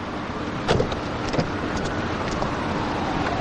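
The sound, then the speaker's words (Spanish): A car sets off after a young woman gets in, then makes a U-turn across a solid line and speeds away, its engine and road noise a steady, even rumble throughout, with a couple of brief clunks early on; no voices. “La joven entra y se ponen en marcha.”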